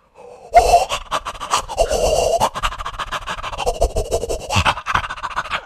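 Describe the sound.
A voice imitates eerie, heavy breathing heard in a video game, with raspy, wheezing inhales and exhales that rise and fall continuously for several seconds, sounding strained and unsettling.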